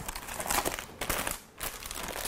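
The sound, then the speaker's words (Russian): Steady crinkling of a plastic packet containing a pencil case being handled and unwrapped, with dense rustling bursts and a brief lull in the middle before the crackling resumes. “Здесь у нас какой-то пакетик.”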